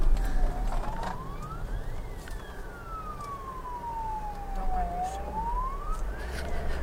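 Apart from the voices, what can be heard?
police car siren passing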